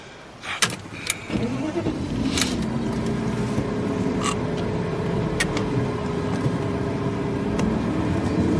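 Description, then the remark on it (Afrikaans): A car door thuds shut, then an engine starts and settles into a steady running hum as the vehicle pulls away, with a few faint clicks along the way. “Kom ons ry.”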